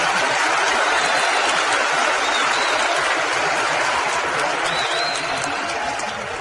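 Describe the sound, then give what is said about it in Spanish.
Loud, sustained applause from an audience, a dense wash of many hands clapping at once that holds steady for several seconds before easing slightly at the end, with no speech over it. “Denle un fuerte aplauso a su Oakland, muchachos.”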